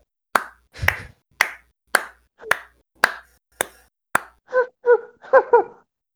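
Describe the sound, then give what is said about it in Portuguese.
A person claps slowly and steadily, about eight sharp claps roughly half a second apart, followed by a few short, tonal voiced bursts like brief laughter or exclamations. “Eu só queria deixar essa salva de palmas aqui.”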